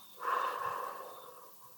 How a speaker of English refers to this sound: Let's ground ourselves and do some breathing to center ourselves for our journaling prompt today. Breathe in, breathe out